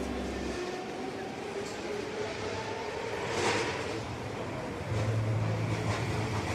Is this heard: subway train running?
yes